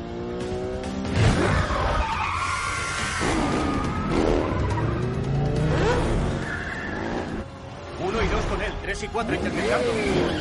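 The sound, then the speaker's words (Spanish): A red Audi car and motorcycles roar through a chase into a parking lot, the motorcycles following the car, tires skidding and squealing in long sweeping whines, loud, with engines revving continuously throughout. “El Audi entra en el aparcamiento. Las motos lo siguen.”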